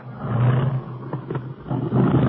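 An approaching propeller airplane, flown by Barney Dunlap, drones steadily, a loud, low rumbling roar with a rough, gritty texture that swells slightly and holds throughout, with no voices.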